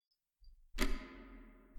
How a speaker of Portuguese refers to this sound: Quando você pega no sono, você começa a ouvir esse barulho, que é como se fosse um, um barulho de relógio.